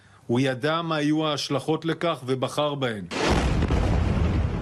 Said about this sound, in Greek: Ακούμε συνεχώς τον ήχο του πυροβολικού όπως και τις εκρήξεις.